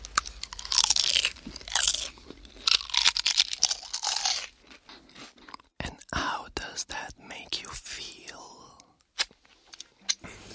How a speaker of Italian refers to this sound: Senti, senti, il crunch, senti il crunch. Bellissimo.